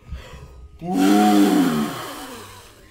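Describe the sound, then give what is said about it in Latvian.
A person makes a loud, drawn-out blowing and roaring noise, imitating a wolf blowing down a hut, huffing hard for about a second and a half before it fades. “Un nopūš.”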